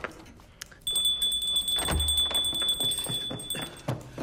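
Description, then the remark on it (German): A small hand bell rung by a lord to summon his butler rings rapidly and insistently for about three seconds, a bright, high metallic jingle with sustained ringing tones and shaking clatter, fairly loud, with no voices. “Ja, bitte entschuldige das barsche Gebimmel. Dafür ist die Glocke da, Euer Lordschaft.”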